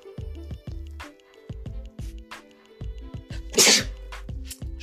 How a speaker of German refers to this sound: Entschuldigung, ich musste gerade niesen.